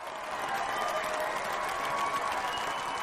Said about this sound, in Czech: Harry vyšel za Fredem a Georgem ze šatny a doufal, že se mu nepodlomí kolena, když vykročili na hřiště a uvítali je nadšený pokřik.